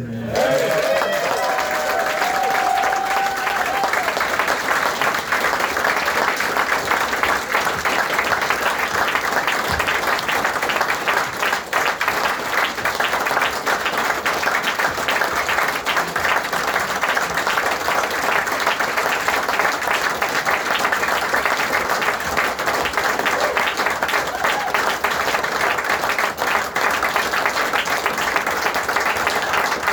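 Sustained audience applause, a last round of applause for a person, fills the whole stretch, a dense, steady wash of many hands clapping, with a brief tonal whistle or cheer near the start.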